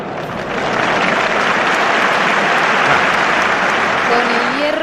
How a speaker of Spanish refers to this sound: Hoy, venga, hoy gran ovación.